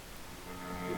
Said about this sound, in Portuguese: É, tá um chiado. Tá, tem, tem um chiado no teu microfone.